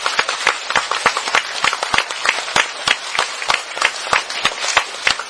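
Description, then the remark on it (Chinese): Participants in a two-day professional training course applaud themselves on the final afternoon, steady for about five seconds, dense overlapping claps with a few sharper individual hand claps standing out at an irregular rhythm, fairly loud and with no talking. “OK，所以为我们能够坚持到最后一天下午，给自己一个掌声，好不好？”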